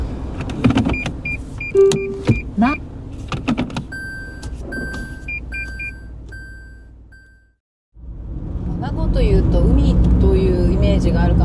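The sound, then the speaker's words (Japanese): Clicks, a window motor and repeating chime beeps inside a car, then a brief pause and a steady rumble of road noise from the car driving on a road lined with greenery on both sides in Nago City, heading back to Naha, with a person talking over it. “道路の両脇が緑に囲まれてて車で走ってても気持ちいいです”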